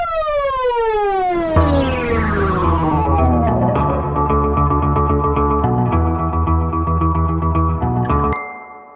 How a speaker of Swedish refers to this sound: Ja, inget avslut utan att först lyssna på Tel Avivs fantastiska jingel naturligtvis.